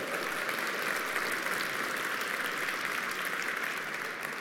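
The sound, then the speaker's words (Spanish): A crowd applauds steadily for the people wearing Christmas outfits, dense clapping at an even loudness that fills the whole stretch without rising or fading, with no voices standing out. “Eh, quiero darle un aplauso a todas las personas que andan con su atuendo navideño. Fuerte el aplauso.”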